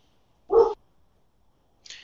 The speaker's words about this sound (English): stop barking.